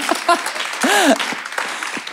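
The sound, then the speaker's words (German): A crowd claps steadily for about two seconds, a dense even patter of many hands, while a voice calls out and cheers over the applause partway through. “ja, ihr dürft gerne klatschen.”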